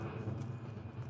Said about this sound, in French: Non, c'est un avion, mais il fait un bruit, les amis. Ah, mais c'est parce que je suis pas loin de l'aéroport, je crois.